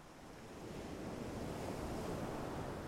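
Steady ocean surf washes onto a shore, a broad continuous rush of breaking waves swelling slightly louder, with a windy hiss and no voices.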